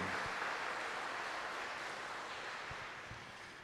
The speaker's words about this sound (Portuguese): E vamos expressar a alegria de estarmos no santuário de Nossa Senhora, saudando Maria com uma grande salva de palmas.